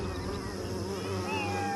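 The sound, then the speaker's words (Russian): Cats meowing, several wavering, drawn-out cries overlapping in a steady stream, with high tones sliding up and down over a dense, buzzing background, no pauses between them. “Как ни крути, это были кошки.”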